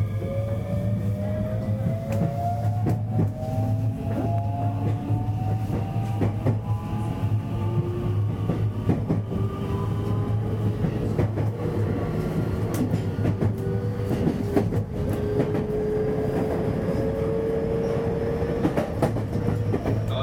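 A JR West 223 series electric train on the Osaka Loop Line outer loop, running as a Kansai Airport/Kishuji Rapid from Tennoji to Osaka, rolls steadily along the rails, its motors whining in gliding tones over a constant low rumble, with intermittent wheel clacks and clicks.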